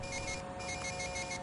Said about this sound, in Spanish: Es el móvil de H.